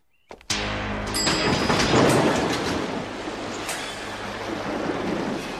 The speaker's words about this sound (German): ist so die erste Sache, die sie bekommen, ist, irgendwie eine riesige Welle Blut aus dem Fahrstuhl strömt.